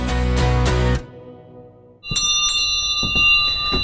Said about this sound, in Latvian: Kad jūs iezvanāt šo zvaniņu, tad visi saprot, ka jāiet pirtī, pirts gatava.